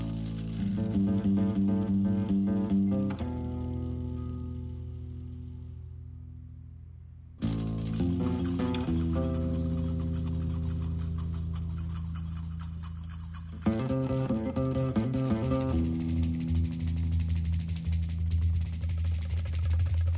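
Starling song in three abrupt stretches, each a loud, buzzy, rasping drone with layered harmonics and a grating, clicking texture that fades slightly before the next begins. No voices.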